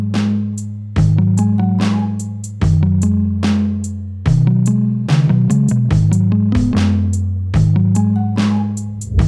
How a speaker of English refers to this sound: I wanted it to be an, a real kit. I was mm. like had this kind of vintage drum sound in my head, um, and I got as close as I could on the computer.